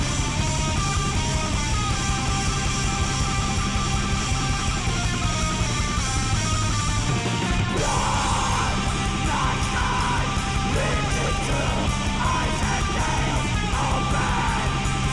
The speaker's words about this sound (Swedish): black metal ursprungligen från Mexiko, men nu från eh, Lazved, alltså Sverige. Det här är ifrån en demo som kom förra året.